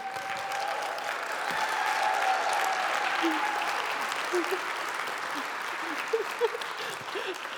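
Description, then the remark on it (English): A crowd breaks into steady applause for a state champion wearing her medal, dense overlapping claps filling the whole stretch at an even, fairly loud level, with a few faint voices and cheers mixed in toward the end. “can we give you a round of applause with that state champion medal around your neck?”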